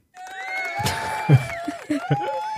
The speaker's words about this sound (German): Applaus bitte.